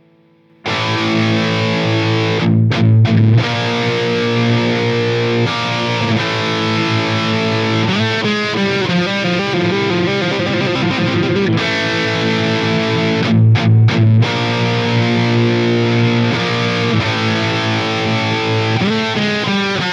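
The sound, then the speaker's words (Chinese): A loud, heavily distorted high-gain electric guitar played through a Mesa Boogie Dual Rectifier amplifier plays thick sustained chords for about twenty seconds, broken by a few quick staccato stops, with no voices. “你看啊，一插上就听到这个嗡嗡嗡的底噪声了，这就说明啊，这家伙肯定是个高增益大失真的玩意儿。”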